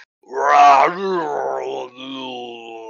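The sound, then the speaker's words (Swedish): A voice imitates a wet, slurping, squelching sound coming from down below, a drawn-out, gurgling groan that rises and falls in pitch for a few seconds, fairly loud, with no words spoken. “och så hör ni något så här slafsande ljud där nerifrån.”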